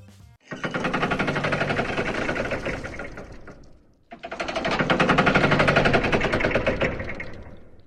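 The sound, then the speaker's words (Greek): Two long bursts of dense, rapid mechanical clattering of machine gears turning and ratcheting, loud, with a brief pause between them and no voices. “Μηχάνημα. Μπράβο, παιδιά. Και στου δύο είναι γρανάζια μηχανή.”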